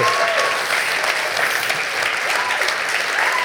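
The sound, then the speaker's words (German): Steady, dense applause from a sizable audience fills the whole stretch, a continuous wash of clapping hands at even volume with no voices breaking through. “einen herzlichen warmen Applaus für Mark Marx”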